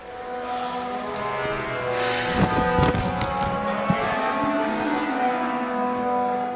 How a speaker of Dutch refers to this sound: Dus gaan we even de concertzaal in... Eh, waar het Rotterdams Philharmonisch Orkest aan het oefenen is, in De Doelen.